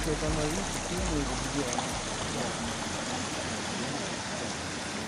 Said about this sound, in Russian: Теплицы работают не за счет электричества, а на газовых генераторах, от них и идет шум.